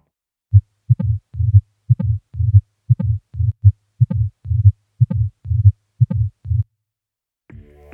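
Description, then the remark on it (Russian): A tricuspid stenosis heart murmur heard through a stethoscope at the base of the xiphoid process: low, muffled heartbeats repeating about once a second, each followed by a rumbling whoosh, with a voice beginning briefly at the very end. “Шум при стенозе трехстворчатого клапана лучше всего выслушивается в области основания мечевидного отростка и немного проводится вправо”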